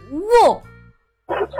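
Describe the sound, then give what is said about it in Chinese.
A person imitates a small dog's bark: a high, yappy vocal 'woof' that rises and falls in pitch, then a pause and a second, rougher bark. “可是，突然他听到后面传来小狗的叫声：“ 喔”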